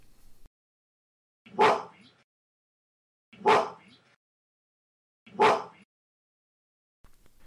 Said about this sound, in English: Because gorillas do bark. They will mm-hmm. bark when they're angry. Correct. And this is an actual gorilla barking, and it repeats three times.